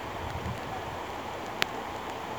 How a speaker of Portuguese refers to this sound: agora o que temos é uma garoa fina que brinca na pele. Feito um arrepio bom. Choveu depois de muitos dias sem chover e eu sinto as gotas caírem devagar